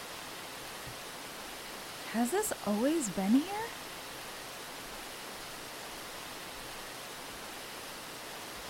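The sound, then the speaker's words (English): A steady, even rush of a waterfall in a little grove near a field fills the whole recording, with a brief spoken question heard over it near the middle. “where did this waterfall come from?”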